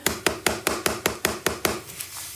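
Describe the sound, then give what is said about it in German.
Three fingertips quickly and evenly tap the edge-of-hand point of the other hand at the start of a tapping round: about nine crisp taps at a steady fast rhythm, then a few softer ones as it trails off. No talking. “Und du klopfst mit der anderen Hand gerne mit drei Fingern an diesen Handkantenpunkt, so in dieser Geschwindigkeit.”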